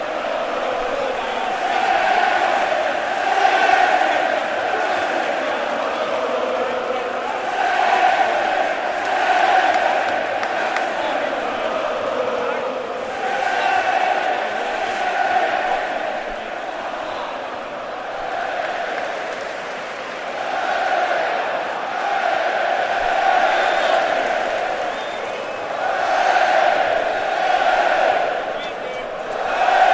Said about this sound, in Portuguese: A torcida está fazendo uma festa bacana agora, inclusive com sinalizadores, como eu já tinha dito anteriormente.